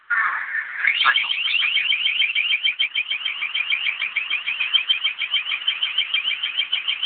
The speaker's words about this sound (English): Here's a long range acoustic device. Let's match them up cycles per second. And I'll show you how that is not real crickets. What it is, it's just a modified version of a sound cannon or a long range acoustic device.